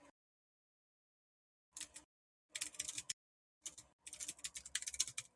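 Bursts of rapid computer keyboard typing, fairly loud, with clicky keystrokes in irregular clusters separated by short pauses and a silent stretch at the start.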